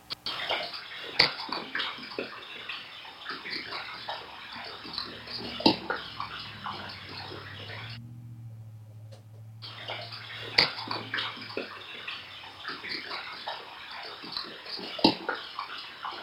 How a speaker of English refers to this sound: Well, and you hear that watery, gurgly stuff in the past, which I, I, I actually believe those are juvenile vocals. Um, I might be wrong. Probably, probably am, but um, I think they're they're vocals